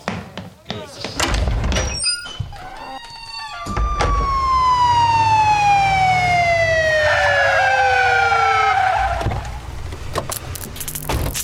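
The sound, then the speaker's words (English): A sheriff's car speeds off toward a fire in the hills west of town, with a loud wailing siren that slowly falls in pitch over several seconds, over a steady engine rumble, after a few short knocks and bumps at the start. “Sheriff, I hope your car's outside. It sure is. Come on.”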